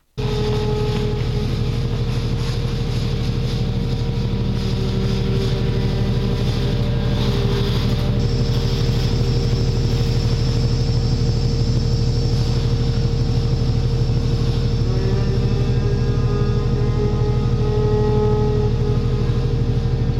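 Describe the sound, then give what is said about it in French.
Construction site machinery drones loudly and steadily throughout, a deep engine rumble with a thin, high mechanical whine that enters partway through and shifts pitch later on. No voices. “Vous nous proposez par exemple de réinterpréter les bruits de chantier jusqu'à les transformer en chants d'animaux selon les oreilles.”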